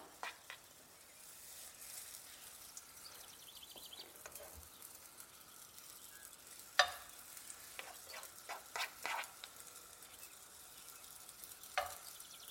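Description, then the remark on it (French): Herb blini batter sizzles steadily in oil in a large hot frying pan, several blini at once, a soft continuous crackle with occasional sharper pops and scrapes, no voices present. “Vous entendez ce petit bruit là”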